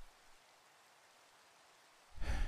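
A steady hiss of falling rain fills the quiet background, then a deep, loud rumble of thunder swells in near the end. No one speaks.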